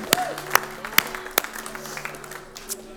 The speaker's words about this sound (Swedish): Underbart, tack till ni av lovsångare. Ska vi ge dem en applåd också? Alla härliga lovsångare.